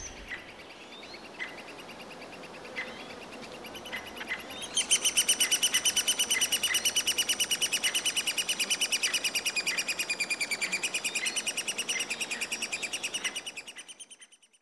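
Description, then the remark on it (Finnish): A three-toed woodpecker parent and chicks call: sparse sharp calls at first, then a loud, continuous, rapid chorus of high-pitched chick begging that runs steadily before fading out near the end. “Pohjantikka Emo ja Poikaset tässä kuunnellaan ja jatketaan kello 19.05.”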